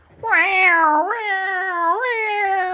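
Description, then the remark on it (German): A human voice imitates a cat's meow: one long, loud wail lasting nearly three seconds, its pitch sliding down and up twice in a whiny, strained way. “Oh je, das ist eine, eine, eine, eine kranke Katze. Schlechteste Imitation.”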